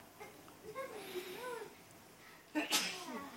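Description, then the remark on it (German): A single sharp sneeze, fairly loud, preceded by a drawn-out breathy, wavering vocal build-up before the sudden burst near the end. “Gesundheit.”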